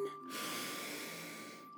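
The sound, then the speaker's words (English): A single long, deep breath drawn in through the mouth during a guided meditation, a steady airy rush lasting over a second, fairly quiet, with a faint constant hum underneath and no talking. “Breathing in and out.”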